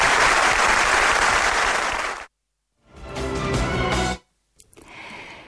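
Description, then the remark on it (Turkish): A large crowd in a hall at Selahattin Demirtaş's election manifesto event claps loudly and steadily for about two seconds for the mother of Berkin Elvan, at Demirtaş's request, then the applause cuts off abruptly, followed by a brief silence and unrelated sounds. “Bu salonda bugün acısı meydanlarda yuhalatılmış bir anayı burada müsaadenizle alkışlatmak istiyorum.”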